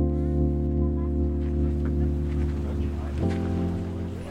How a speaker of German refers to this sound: Wir sind hier beim Café Liebe am Kanal äh, mit sehr schöner Atmosphäre, mit leichtem Blick aufs Wasser zwischen viel Grün